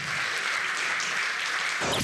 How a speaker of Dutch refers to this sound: Dit wordt de radio. We gaan naar de live podcast, mag ik jullie applaus voor Arjan Snijders, Marcel van Roosmalen en Ron Vergouwen.